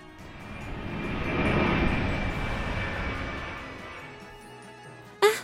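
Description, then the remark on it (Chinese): A small private airplane arriving at a banquet venue: its engine drone swells to a steady roar, then slowly fades, ending with a brief, sharp rising whoosh. No one speaks. “是迪奇和他的姐姐搭着私人的飞机也到达了会场。”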